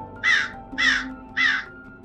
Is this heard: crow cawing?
yes